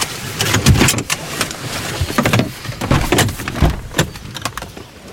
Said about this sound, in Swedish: Bil i all ära, det är ju viktigt att ha en bra bil, men det är ju skönt att kunna gå ut ur bilen ibland och det ska vi göra nu. Jag tycker vi gör det.